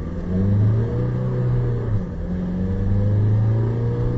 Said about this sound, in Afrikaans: Die 2.5 turbo diesel skop 80 kW uit danksy 300 Nm wringkrag trek hy heel billik deur die ratte, maar dis maar 'n lawaaiige eenheid. En hy toer net tot 3800 omwentelinge.